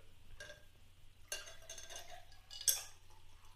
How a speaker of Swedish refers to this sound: Det ni hör nu är alltså isbitar som trillar ner.